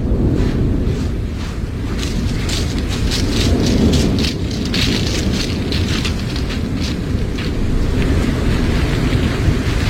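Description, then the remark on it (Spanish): A volcanic eruption in the Canary Islands, heard as live sound from a television feed, roars continuously, a deep, heavy rumble filling the whole stretch, with scattered crackling bursts on top; loud and steady throughout, no voices. “Esto que oyen de fondo es el volcán, escuchen.”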